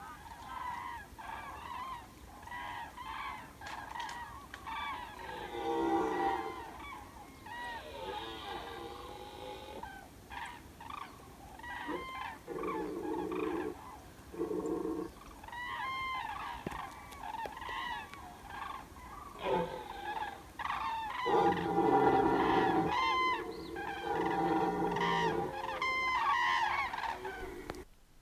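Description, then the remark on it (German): Cranes trumpet in loud, repeated bursts while deep, drawn-out roars of red deer stags rise between them, the two calls overlapping and competing throughout, with no one speaking. Recorded on a phone in a hunting district in the evening, at about 23 °C. “Frei nach dem Kinderlied Der Kuckuck und der Esel boten sich hier die Kraniche und die Rothirsche einen wahrhaften Wettstreit, wer wohl am lautesten sänge.”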